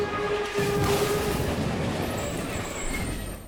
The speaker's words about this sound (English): So, what sound effect will you be choosing from the following? A complete train wreck